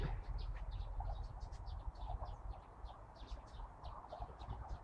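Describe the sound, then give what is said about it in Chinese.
Small sparrows, at least four, chirp continuously in a fenced-off area where no people go: a busy scatter of short, high-pitched cheeps repeating in quick, irregular bursts over a steady low rumble of background noise. “你听那个那个吱吱吱吱吱那个那个叫声，就是两鸟的叫声。这是小麻雀。”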